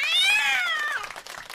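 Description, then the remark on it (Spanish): A single long cat meow, part of an applause sound effect, slides downward in pitch for about a second. A brief, faint rustling or clapping-like noise trails after it. “Un aplauso nuevo con gato.”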